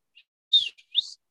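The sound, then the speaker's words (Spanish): A short two-part whistle sound effect: a bright, high-pitched burst, a brief pause, then a second upward-sweeping whistle, heard clearly on its own with no talking. “Y entonces ese, chiflido es de vengan acá porque necesitamos digerir.”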